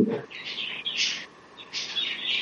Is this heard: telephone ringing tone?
no